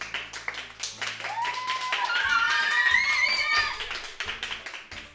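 A burst of steady clapping from the studio audience at Radio 6 Forte welcoming a new guest as she sits down, with a rising whistle-like tone sweeping up over the middle of the applause before it thins out.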